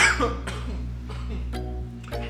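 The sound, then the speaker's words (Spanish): A strained coughing fit: several harsh, choking coughs in quick, uneven succession, with gasping pauses between bursts over a steady low hum. “Este, ay, perdón, me ando gando, me ando gando.”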